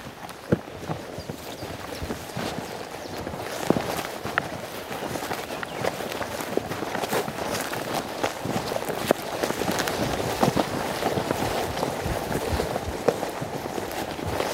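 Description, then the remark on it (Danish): Steady footsteps of people walking along the bottom of the valley Ådalen, a continuous rhythm of crunching, scuffing impacts on rough ground, moderately loud against a faint outdoor background, with no one talking. “Vi er på vej ind i øh, Ådalen, er vi vel, og øh, og vi går nede i, i bunden hernede.”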